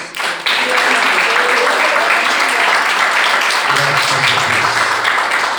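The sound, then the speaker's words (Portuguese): A crowd at an evening church service bursts into sustained, dense applause offered to the Lord Jesus, starting abruptly and continuing steadily and loudly throughout, with faint voices mixed into the clapping. “as palmas que adorem ao Senhor Jesus.”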